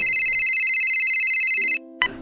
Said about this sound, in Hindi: तभी अचानक फोन की घंटी बजी